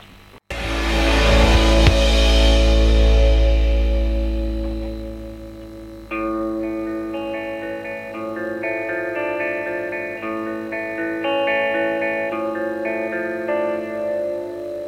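A French rock song intro opens with a loud, ringing distorted chord that slowly fades, then a steady riff of effect-laden electric guitar notes kicks in, instrumental with no singing yet.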